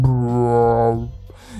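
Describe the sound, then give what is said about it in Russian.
A person imitates a low, eerie drone, like something between an organ, a gong and the scariest horror-film sound, with a single sustained, resonant hum held for about a second before trailing off. “и вдруг у них посреди разговора как будто нечто среднее между органом, гонгом и самым страшным звуком из хоррора играет, такой”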